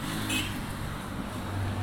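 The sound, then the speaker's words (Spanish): A loud motorcycle engine drones on a stretch of road, a steady low rumble with a slight rise in pitch partway through, and no voices. “Nos hemos encontrado varias motos pedorras en este tramo del camino.”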